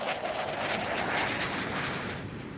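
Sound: jet aircraft flying overhead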